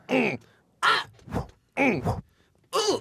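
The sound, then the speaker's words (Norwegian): A voice imitates a tennis player's grunts on a shot, giving four loud, strained vocal bursts in a steady rhythm, each rising and falling, with short silences between them. “Ja, men det er, det er tennislyd.”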